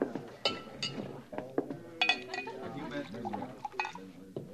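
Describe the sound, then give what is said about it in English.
Glasses clink and knock sharply several times as a glass of rye is poured and served, with people talking quietly underneath throughout. “Oh, glass of rye. Yes, sir.”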